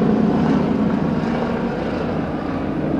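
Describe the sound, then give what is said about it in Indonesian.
A helicopter roars very close overhead, its loud, steady engine and rotor drone filling the whole stretch without fading. No one speaks. “wow dekat sekali intermezzo dari intermezzo dari dunia itu helikopter dekat banget sih”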